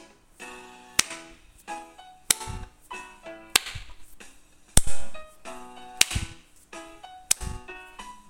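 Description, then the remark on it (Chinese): Sharp, crisp hand claps land at a steady, unhurried pace, about six in all, each cutting cleanly through a bright musical backing with sustained tones and no voices; clapping along to keep the beat as Miss Hippo dances. “河马小姐还沉醉在自己的舞步当中，甚至还鼓起手来。猫头鹰医师，让大家一起打拍子。”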